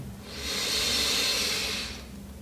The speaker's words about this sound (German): Wir nehmen jetzt alle zusammen einen tiefen Atemzug und atmen ein.